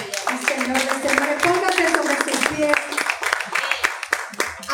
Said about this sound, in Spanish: le damos un aplauso al Rey de Reyes,